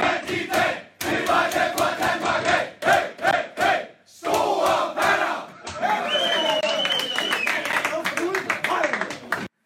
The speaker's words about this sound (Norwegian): Er det et kjent heiarop i Danmark? Det er en, eh, det er en eh, tradisjon i mange fotballomklædningsrom at eh, man slutter presis denne sangen med, med, det.